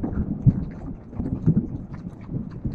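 A thunderstorm rumbles with low, rolling thunder beneath a steady wash of rain, the deep booms swelling and fading in a continuous roar.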